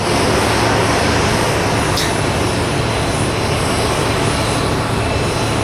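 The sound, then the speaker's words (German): A loud, unbroken roar of airplane engines while the aircraft sits outside at an airport being refueled, a dense steady rumble with a faint hiss on top and no voices. “Wir sind draußen, ne? Wird getankt, glaube ich, habe ich eben gedacht.”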